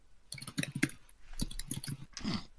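Rapid clicking keystrokes on a computer keyboard, coming in irregular bursts with short pauses, close and fairly quiet, with no one speaking.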